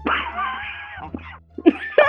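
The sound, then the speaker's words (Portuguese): A man gives a harsh, raspy cough: one long rough hack followed by a few shorter, barking bursts, sounding almost like an old dog hacking. “parecendo um cachorro velho tossindo do início ao fim.”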